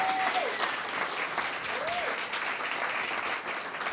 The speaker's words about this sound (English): Shout out to my friends over here that I met at the hospital who came to visit. Let's give them a round of applause, our special guest.